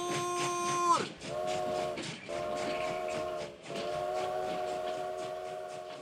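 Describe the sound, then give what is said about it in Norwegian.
A train whistle blows in long, steady tones, three sustained blasts separated by short gaps, over the rumble and clatter of a moving train. “Nå går frokosttoget! Alle om bord!”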